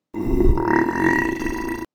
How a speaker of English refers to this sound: that burp was a royal burp, and only a king or a queen can make a royal burp. And that was a burp from the king. You've been eating cucumbers again, said the queen. I love cucumbers. The king was sitting on his throne when he burped again.